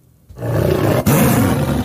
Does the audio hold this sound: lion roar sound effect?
yes